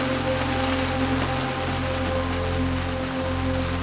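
Steady rain from a thunderstorm in the Himalayas patters and hisses in a dense, continuous wash of drops, with a low hum underneath and no voices or thunder claps audible.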